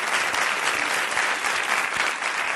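Steady, dense applause from an audience fills the whole stretch, many hands clapping at once at a constant, fairly loud level with no voices standing out.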